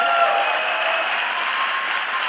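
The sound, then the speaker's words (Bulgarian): An audience applauding steadily, a dense wash of many hands clapping at an even, fairly loud level throughout, with no voices standing out. “О, Господи, благослови тия хора, които ръкопляскат с ускорение.”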